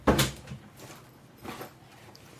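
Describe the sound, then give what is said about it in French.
Rummaging in a cupboard: a sharp wooden knock or bump at the start, then scattered rustling and clattering of objects being shifted, with another thud about halfway through. “Je fais du bruit, je farfouille.”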